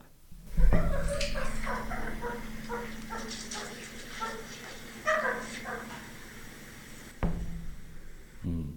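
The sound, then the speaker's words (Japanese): A mild animal alarm call: a steady run of short, high-pitched whining notes, repeated for several seconds at moderate loudness and sounding much like a dog whimpering. “なんかなんかちょっとい犬が鳴いてるようなね、うんうんうん、んンンンみたいな感じ高めのンンンンみたいなこれ危険度軽めなんですよ”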